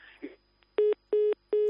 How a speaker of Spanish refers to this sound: Uy, se nos ha cortado el teléfono. Se nos ha cortado el teléfono.